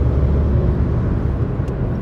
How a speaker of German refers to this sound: Ich fahre jetzt eh gerade gemütlich zwischen den LKWs, aber ja, war gut, dass ich da die Spur gewechselt habe.